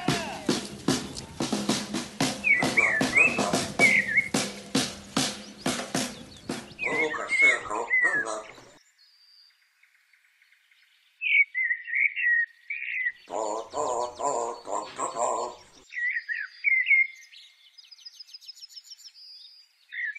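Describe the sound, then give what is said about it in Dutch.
In Minsk, Belarus, in 2021, a crowd chants in a steady rhythmic beat with birds chirping over it; after a brief hush, birds sing alone in short, repeated phrases that echo the chant's rhythm. “hoe de vogels eh, deze skanderende scanderende massa's overnamen in, het, in hun gezang en in hun klanken.”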